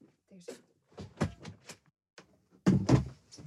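A door being closed close by: several soft clicks and rattles as it is handled, then a firmer thud as it shuts, followed by faint shuffling.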